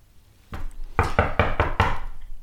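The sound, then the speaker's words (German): A series of about five sharp knocks on a door, quick, evenly spaced and fairly loud, with no voices. “Wer klopft denn?”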